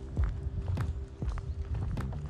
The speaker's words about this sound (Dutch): Oh, die maakt dat geluid dus. Oh, we zijn erachter. Het is dus een grote specht die dat geluid maakt.